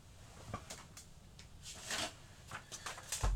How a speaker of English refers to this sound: Now, give me two seconds. I'm getting the pen and paper out. Give me two seconds.